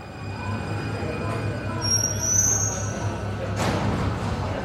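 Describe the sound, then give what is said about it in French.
A suburban train rumbles steadily at a station, its wheels letting out a thin, high squeal midway before a brief rushing burst of noise; no one speaks. “de ces trains de banlieue que l'on ne doit pas manquer.”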